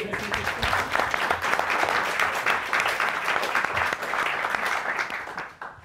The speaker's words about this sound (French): D'accord, et eh ben, un grand merci pour euh, cette intervention. On peut applaudir.